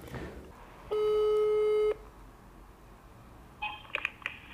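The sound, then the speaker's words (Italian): A loud, steady telephone tone sounds for about a second, followed after a pause by a quick cluster of short, high electronic beeps, like keypad presses while dialing a number to call a parish. “Scusa, chiama, fai, fai sto numero, scusa, chiama, prendi il telefono.”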